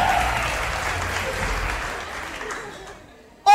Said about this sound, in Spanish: Un aplauso